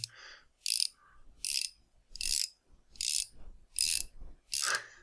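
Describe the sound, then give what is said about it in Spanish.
A mechanic's ratchet wrench, used for tightening nuts, clicks through six steady, evenly spaced bursts of sharp ratcheting, fairly loud, with no voices and only faint background between the strokes. “No sé, me suena la llave de estas de, mecánico que... Exacto, una llave que qué, qué es lo que hace esa llave?”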